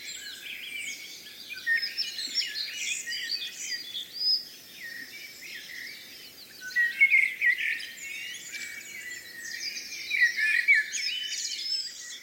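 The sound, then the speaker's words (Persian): A dense chorus of birds singing and chirping, many overlapping calls and trills filling the air continuously, with a faint insect-like hum beneath and no voices. “به عنوان مثال اشاره شده که صدای پرندگان بیشترین تاثیر رو در کاهش استرس داره”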